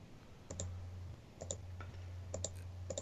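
Quiet, repeated clicks on a computer keyboard come in small pairs and clusters at a steady pace, with a low electrical hum underneath and no voices.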